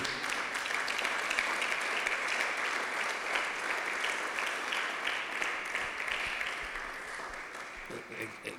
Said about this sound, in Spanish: Le da un aplauso al Señor, hermano.